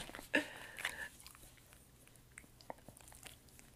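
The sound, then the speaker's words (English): Wet licking and chewing from Chewy the dog licking the microphone, with a couple of sharp smacking bursts early on, then softer scattered mouth sounds fading out. “So, Chewy just licked the microphone.”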